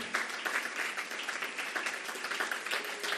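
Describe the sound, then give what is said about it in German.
A church audience applauds the people being baptized that day, dense overlapping claps forming a continuous, fairly even wash of sound with slight swells, no voices standing out. “Und dass wir ihnen einen riesen Applaus geben.”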